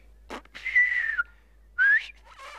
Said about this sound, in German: Ich habe zur Krönung der Königin Elisabeth gepfiffen, anlässlich der ersten Bundestagssitzung, mehrfach bei der UNO und vor dem obersten Sowjet.